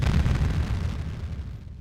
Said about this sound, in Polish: Jeden z tytułów pisze, że e, buddyjskich mnichów przewoziło się do amerykańskich laboratoriów, podpinało do różnych urządzeń, badało, a potem puszczało na przykład dźwięk tak głośny, jakby w odległości kilku metrów wybuchła bomba.